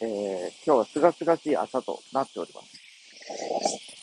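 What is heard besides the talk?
cicadas chirping outdoors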